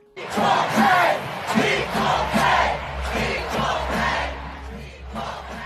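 A crowd of more than 50,000 spectators at the Women's World Cup final in France chants in unison after the US women's team beat the Netherlands 2-0, loud and sustained, with rhythmic repeated syllables rising and falling over a steady roar of massed voices.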